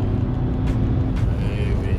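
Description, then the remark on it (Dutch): Trucks rumble past on a road near Brummen, a steady, loud low engine drone with a couple of brief whooshing surges as vehicles go by. “hier bij uh, voor Brummen even die weg wat vrachtwagens passeren.”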